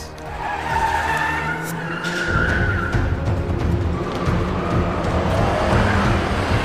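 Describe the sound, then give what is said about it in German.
A police car's tires squeal loudly in a long skid, the high screech wavering over a steady engine roar before the vehicle grinds to a stop. No one speaks. “Scheiße, die Bullen! Was wollen die denn hier?”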